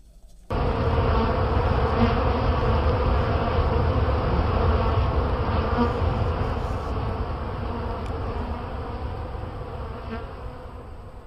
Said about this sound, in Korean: And the bees flew off. 벌들이 날아갔다.